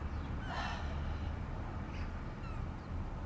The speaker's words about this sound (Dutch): Er vliegen een paar meeuwen voorbij.